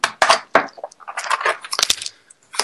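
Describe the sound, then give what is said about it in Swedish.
Busy handling noises: plastic clicks, knocks and rattles as a keyboard is unplugged and a computer is moved closer, in irregular bursts with no talking. “Jag kan koppla ur mitt fina tangentbord här och ta datorn närmare.”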